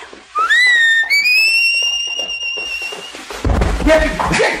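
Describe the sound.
A loud whistle swoops upward and holds a steady high note for a few seconds, then gives way to rustling and dull thumping noises.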